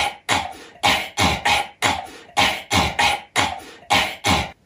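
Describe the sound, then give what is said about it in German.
A voice imitates the typical harsh, hacking, barking cough of a smoker who coughs every day, in a rapid series of about a dozen loud bursts, grouped in rough pairs with brief gaps between. “ich muss jeden Tag husten und, und, und kotzhalb und habe diesen typischen Raucherhusten, dieses Gebelle, diese...”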